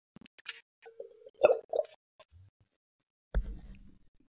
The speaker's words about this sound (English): It is my Yeti. Now, people make fun of me for my Yeti. I'm going to take a quick sip because uh, I've been talking for too long.